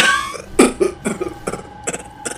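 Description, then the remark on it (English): A rapid coughing fit: a string of about six to eight harsh, hacking coughs in irregular bursts, loud and raspy, with no speech around them. “Oh, I hate these bloody coughing fits.”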